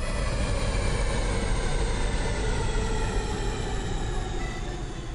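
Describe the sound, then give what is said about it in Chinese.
An airplane landing, with wing flaps and wheels lowered to slow it down: a loud, steady mechanical roar with deep rumbling and a sustained whine layered on top, holding constant for about five seconds with no voices. “飞机成功着陆啦！”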